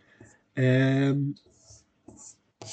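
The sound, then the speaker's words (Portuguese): A brief voice sound is followed by three short, scratchy brushing strokes across a tabletop, fairly soft, as rubber eraser crumbs are brushed off the table while it is being cleaned. “só, só vem ouvir um barulho de fundo é porque eu estou a limpar a mesa. Está cheio de paras de borracha.”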